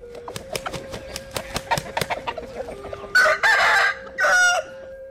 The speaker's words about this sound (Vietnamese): người pu béo quan niệm tiếng gà gáy vừa hay vừa thương liêng đánh thức cả ông mặt trời dậy vì thế ai át được tiếng gà thì sang năm mới sẽ hát hay gặp nhiều may mắn hạnh phúc